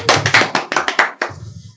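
A quick burst of hand clapping, roughly seven or eight sharp claps in an uneven rhythm, fairly loud, then trailing off into quiet.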